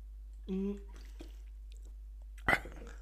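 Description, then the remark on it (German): Wet drinking noises as a person demonstrates drinking loudly: a short voiced gulp, then after a pause a sudden sharp slurp and swallow, loud against near silence. “ich hoffe, die Schlucken ist mit drauf, weil das so abartig ist.”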